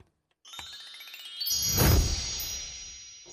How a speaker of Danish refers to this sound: Nej, du kan godt høre. Ja. Det bimler og bamler.